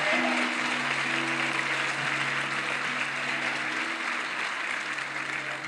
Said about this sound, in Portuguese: Ah, se é para aplaudir, aplaude.